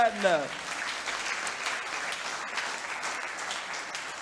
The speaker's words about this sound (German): Halleluja, lass uns einen Applaus zu Jesus Christus geben.